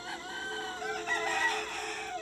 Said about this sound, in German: Doch plötzlich durchbrach lautes, aufgeregtes Gegacker die Ruhe.